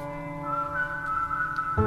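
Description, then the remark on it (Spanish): A clear whistled melody from a song plays over steady musical backing, holding a long bright note before shifting pitch near the end, loud with no voices. “Ese chifladito, güey, lo que me agarraba a mí en la rola”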